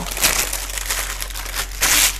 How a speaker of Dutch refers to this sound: En nu ineens ik verkruimel het bakpapier. Zodat hij niet wegloopt.